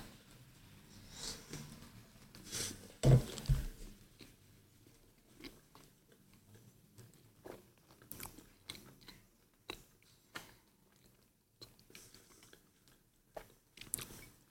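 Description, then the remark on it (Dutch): Someone takes a bite of a cream pastry during a taste test with a soft crunch, then chews quietly and steadily, with small wet mouth sounds scattered through the quiet and no talking. “Ik ga gewoon een hap nemen.”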